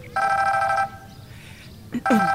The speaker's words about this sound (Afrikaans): Ekskuus tog, my selfoon in my voorskoot sak. Ek dra dit maar saam.